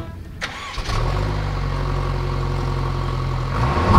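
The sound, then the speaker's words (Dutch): A small car with a small engine cranks briefly and catches, then settles into a steady idle with a low rumble, revving slightly near the end. No one speaks. “Ik slinger hem aan voor je.”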